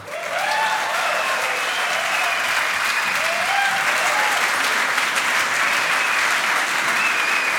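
Loud, sustained applause from a large audience welcoming ski world champion Felix Neureuter, a dense wash of clapping that holds steady for several seconds, with faint cheers or whistles rising over it.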